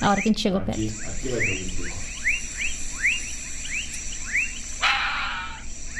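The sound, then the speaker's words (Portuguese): A steady, high crickets' trill runs throughout the background, with a regular series of short rising chirps repeating every half second or so, while people speak briefly near the start. “É, menos a RAM e menos os grilos, né?”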